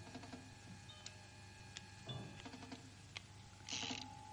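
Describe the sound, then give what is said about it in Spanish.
Pistols being loaded by Tector and Rosa at night in the Jersey Lily: a scattered series of sharp metallic clicks and clacks, fairly quiet, with a brief clustered rattle near the end and a faint steady hum underneath. No one speaks. “Por la noche, Tector y Rosa están en el Jersey Lily cargando unas pistolas.”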